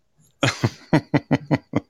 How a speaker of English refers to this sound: I may cough up a lung or you know um, pass out for a few seconds, but I'll be fine.